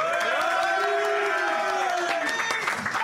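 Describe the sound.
An audience at a live radio broadcast at the Hard Rock Café Paris applauds steadily for about three seconds, a dense patter of clapping mixed with cheering and raised voices from the crowd, loud and continuous throughout.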